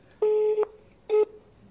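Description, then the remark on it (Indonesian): Two electronic telephone tones, a longer one followed by a shorter one after a brief pause, steady and clear with harmonic layers, like phone dialing or line tones as a call is tried again, with no talking over them. “Coba telepon lagi, Mas. Atau di telepon lagi.”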